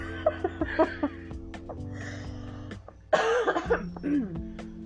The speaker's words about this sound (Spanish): Bueno, pues que tengo tos, ¿no? es tos seca. Entonces este. Es, una tosecita normalita.